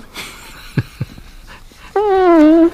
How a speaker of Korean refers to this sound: 무슨 소리 같아요? 네. 방구소리입니다.